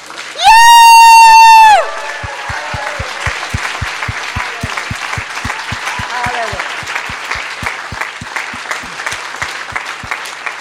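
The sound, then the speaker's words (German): An audience bursts into loud, sustained applause for the Lord after a brief whoop, with cheering voices and rhythmic clapping that settles into a steady, unified beat for several seconds. “Und jetzt geht's dem Herrn der Klatschopper.”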